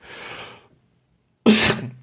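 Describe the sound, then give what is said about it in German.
A breathy intake leads into a pause, then one sudden, forceful burst that sounds halfway between a sneeze and a cough, loud, from a person in a Zoom chat, with no talking. “Ähm, war jetzt ein Nieser oder musstest du husten? Das war eine Mischung aus beidem.”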